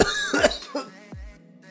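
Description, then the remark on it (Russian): A man coughs a few times in quick, rough bursts, then clears his throat, with no talking. “откашливается”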